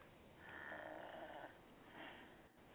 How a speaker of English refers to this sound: Is she snoring? What was that? What? I heard that. And I Did you hear that? That's a snoring. I bet she's fallen asleep.